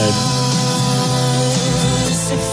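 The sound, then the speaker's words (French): A loud, bright burst of produced music plays for a couple of seconds, with full-band instrumentation and sustained tones: the RMC radio news jingle for the following day's bulletin, played by mistake, with no voices over it. “non, mais c'est le son du journal de demain ah, ça.”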